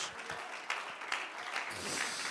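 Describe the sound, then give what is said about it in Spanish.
An audience applauding the presence of God: dense, steady clapping from many hands fills the whole stretch at moderate volume, with no voices speaking over it. “Alguien puede aplaudir mejor la presencia de Dios.”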